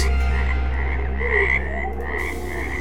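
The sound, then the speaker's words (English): A dense chorus of frogs croaking continuously in a toilet full of frogs, many overlapping calls forming a loud, steady pulsing drone, with no voices present. “The dunny's full of frogs.”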